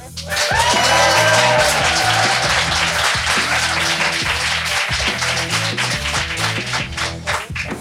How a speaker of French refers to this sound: Très sympa cette euh, bande son de rire et d'applaudissements euh